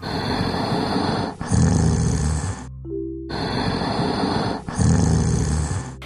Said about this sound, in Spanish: Luego se comió el pastel que estaba en la canasta, y al terminar, ya bien lleno, se quedó dormido roncando.